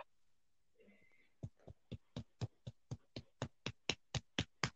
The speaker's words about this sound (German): Nochmal ja, einen Applaus. Los?